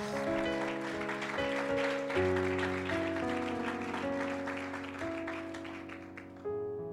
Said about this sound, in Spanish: Un aplauso fuerte a nuestro Dios, venga.